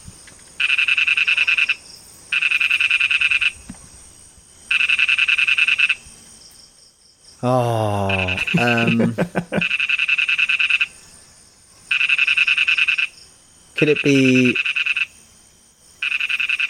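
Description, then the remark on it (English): A lesser toad (Malayan dwarf toad, Ingerophrynus parvus) calls in repeated long, buzzy trills, each lasting about a second with short gaps, loud; a voice briefly speaks over the calls midway. “This is the lesser toad or the Malayan dwarf toad. It is Ingerophrynus parvus.”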